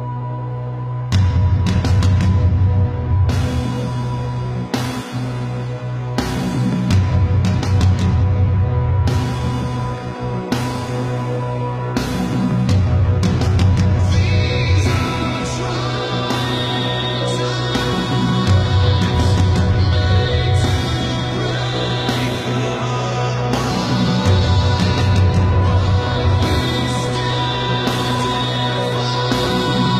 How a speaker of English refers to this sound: The video and that song clip were put up to announce the pre order for their eighth studio record